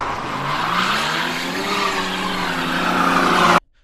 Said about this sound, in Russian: Гонщик подъехал к обрыву и со всех сил начал забрасывать снегом медведя. Он пробуксовывал на месте задними колесами.